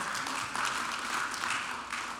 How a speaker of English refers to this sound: One other quick announcement uh, we have a baptism coming up next Sunday, second service. And yeah, you can applaud that. That's cool.